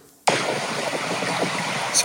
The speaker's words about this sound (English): not sure if this is going to come out, but here's some audio from the video of me floating down the river.